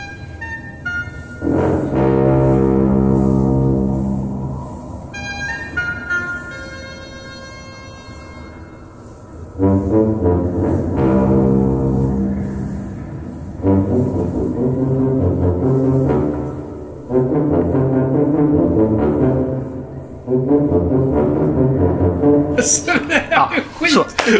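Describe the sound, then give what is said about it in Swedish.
An alien spaceship plays musical tones as humans and the ship try to communicate through music: loud, deep, horn-like notes blare in long sustained phrases, trading with higher melodic notes, and the series of tones repeats several times without any talking. “människorna och det utomjordiska rymdskeppet försöker att etablera en kommunikation med varandra medelst musik.”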